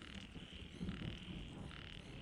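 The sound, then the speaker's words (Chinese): A dense chorus of frogs croaking without pause, a steady buzzing, rasping wall of calls that swells slightly around the middle, with no voices. “有许多耳朵皮嫩的人，很恶喧嚣，如麻雀、蛤蟆或蝉的叫声，凡足以妨碍他们的甜睡者，无一不痛恶而深觉之，大有欲灭此而午睡之意。”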